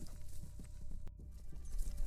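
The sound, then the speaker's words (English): A horse's hooves clip-clop steadily on a hard road under gathering clouds and light mist, a brisk rhythmic series of hollow knocks, with no voices present. “he pulls hard on the reins of his horse.”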